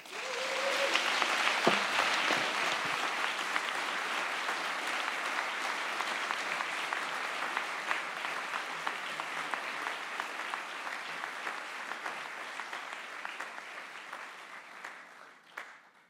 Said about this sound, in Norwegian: Tusen takk at dere begge kunne komme. Dette har vært veldig spennende, og jeg syns innlederne våre fortjener en stor applaus.